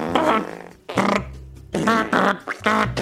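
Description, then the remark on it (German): A person vocally imitates a man farting at a urinal: several loud, buzzy, sputtering bursts in an uneven rhythm, with no other talking. “Ah da war ich, muss sagen, als junger, als junger, junger Mann war ich immer, hatte ich immer Bewunderung dafür, mit welchem Selbstvertrauen die sich da hinstellen und dann abknattern.”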